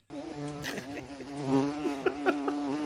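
A flying insect buzzes, a steady droning hum that wavers slightly in pitch with a few brief clicks, continuing for about three seconds with no talking.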